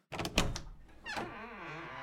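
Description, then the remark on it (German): A wardrobe door unlatches with a couple of wooden knocks, then swings open with a long, wavering creak that trails off, as the young dragon Nibli fearfully opens his wardrobe. No voices. “Nibli öffnete ängstlich die Tür.”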